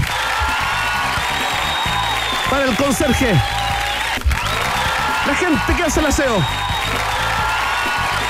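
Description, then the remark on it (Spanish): A crowd applauds steadily with scattered cheers throughout during a Rock and Pop radio broadcast, a dense, even wash of clapping that stays loud the whole time while a man speaks over it. “Oh, más fuerte el aplauso.”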